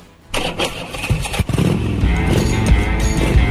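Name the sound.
motorcycle engine revving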